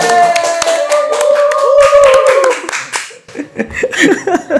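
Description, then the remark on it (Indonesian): Several people clap their hands in an even, steady rhythm, celebrating an app nearing 50,000 downloads on the Play Store, loud at first, with cheerful exclaiming voices and laughter mixed in before the clapping thins out. “Ini tepuk tangannya terstruktur ya.”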